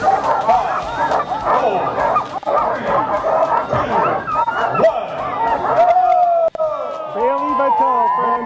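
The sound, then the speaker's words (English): A loud, dense chorus of many sled dogs barking, yipping and whining excitedly, continuous and overlapping, with higher-pitched howl-like cries toward the end. The dogs are at the ceremonial start of the nearly 1,000-mile race from Anchorage to Nome, Alaska, with just over 30 teams. “Just over 30 sled dog teams making the trek for about another week or so.”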